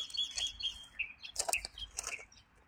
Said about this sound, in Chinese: 刚才听到的这是白头鹎的叫声。